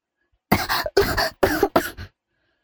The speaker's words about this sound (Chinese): 因为不会抽烟，吸了一口，反而被呛了一口。